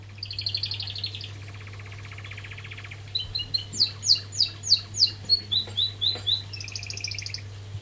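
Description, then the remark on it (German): Birdsong outdoors on a hill above a huge reservoir in Ulze: a bird sings a clear, rhythmic series of repeated bright notes, with other chirps and trills around it over a steady low background hum. “Da habe ich eigentlich nur einen Kaffee getrunken und saß auf einem Hügel über einem riesigen Stausee. Und äh, da gab es tatsächlich äh, Vögel.”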